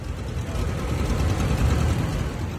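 A steady, low rumble of very old, well-maintained tractor engines running together in a parade at a fair, a dense throbbing drone with no voices over it.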